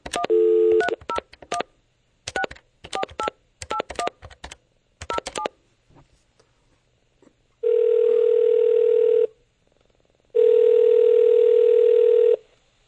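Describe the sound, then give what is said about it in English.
A landline telephone keypad beeps through a quick series of dialing tones, then after a pause two long, steady ringing tones sound down the line, each lasting about two seconds, clear. “Landline.”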